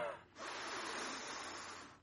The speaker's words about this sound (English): And I would say, What is so funny about taking a cleansing breath? She goes, I do this every night. and, and, and it, it really, it's amazing how what it feels like when you get oxygen, right? Let's all try it. Ready?